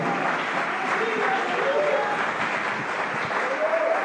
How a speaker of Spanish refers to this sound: Vamos, apláudele, apláudele, apláudele fuerte porque Él lo merece. Aleluya, aleluya.